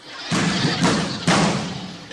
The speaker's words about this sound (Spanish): Tal fue el escándalo y el enojo que hasta puertas tumbaron. pues nos quieren tomar como rehenes, parece que ya tumbaron una puerta.